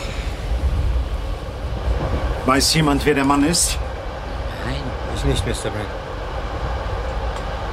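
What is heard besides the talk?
moving train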